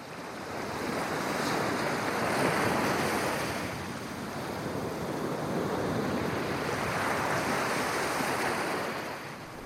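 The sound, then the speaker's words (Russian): Steady ocean surf washes onto a seashore at evening sunset, swelling and receding in two slow broad surges, with wind blowing across the microphone throughout. No voices are present. “На фоне морского берега, в свете вечернего заката, почувствовалось дуновение ветра из спокойного леса.”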